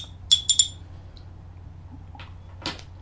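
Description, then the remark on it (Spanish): A spoon stirs a drink in a cup between sips, giving three quick, bright, ringing clinks. A couple of softer brushing sounds follow over a low, steady hum. No one speaks. “Bueno, me extendí un poco en el primer tema, así que me voy a dar otro sorbido, revuelvo otra vez.”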